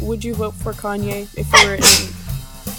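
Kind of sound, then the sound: human body sound, sneeze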